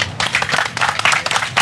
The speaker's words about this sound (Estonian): nii et teeme sellele robotile väikese aplausi.